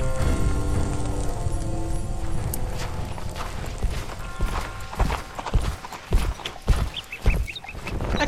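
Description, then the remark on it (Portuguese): Horse hooves clip-clop in an uneven rhythm, emerging from a steady rumbling background and growing clearer in the second half, with no talking. “Senhor Huck, pode usar minha montaria.”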